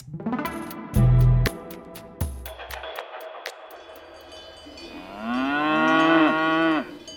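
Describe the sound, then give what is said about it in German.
Cows moo, with one long, loud, wavering low moo near the end, preceded by a few clanking bell-like knocks and a brief low rumble. No one speaks. “Und zum Schluss geht es noch um Kühe.”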